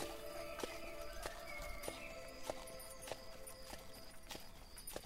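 Tired horses pulling a wagon at dusk neigh and snort over a steady clip-clop of hooves, the hoofbeats landing in a regular walking rhythm, clear, with faint outdoor ambience and no voices.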